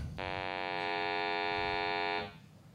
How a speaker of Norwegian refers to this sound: Nå skal vi høre lyden av universet. Hvis lyden funker. Så det her er lyden av universet.